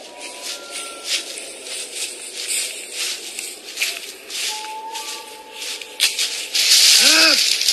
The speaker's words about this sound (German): Was war das? Habt ihr was gesehen, Kollegen? Stimmt nur ein Fuchs. Es leben nun mal allerlei Tiere in so einem Wald.